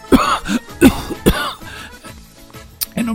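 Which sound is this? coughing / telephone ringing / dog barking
coughing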